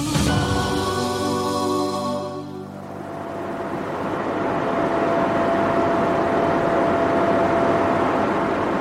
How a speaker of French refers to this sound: Ça, c'est le bruit d'un data center. Un data center, en français un centre de données, c'est un gigantesque entrepôt bourré d'ordinateurs, des serveurs qui fournissent de la puissance de calcul et du stockage aux entreprises et aux particuliers.